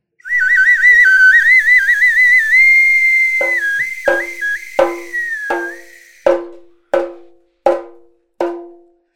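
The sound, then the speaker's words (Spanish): A loud, shrill steam whistle from a sweet potato vendor's cart wails steadily for several seconds, wavering slightly in pitch, then a series of sharp knocking or clanking hits follow at a steady pace. “¡Camote!”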